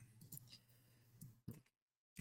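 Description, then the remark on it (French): A pair of dice are thrown, rattling and clattering across a hard surface in a quick series of sharp clicks, then going quiet before one more knock at the end. “Et là je vais jeter vraiment 2 dés et pas un seul comme tout à l'heure.”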